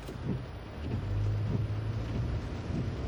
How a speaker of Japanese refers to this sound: えー、雨が降ってますねおとといぐらいからですかねえー梅雨入りということになりましたけども